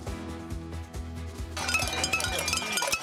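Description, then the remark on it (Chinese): Protesters in France, outside the 10th arrondissement town hall in Paris, protest against President Macron's pension reform law: a steady, rhythmic low thudding gives way halfway through to loud, dense metallic clanging of pots and pans, many overlapping rapid strikes ringing out together with no voices. “好，不过显然民众不买单，包含首都巴黎、西部卢昂，还有南特等等城市，民众是带着锅碗瓢盆上街狂敲，高喊口号，持续示威抗议。”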